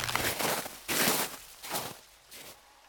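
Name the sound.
running footsteps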